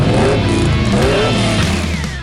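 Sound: car engine revving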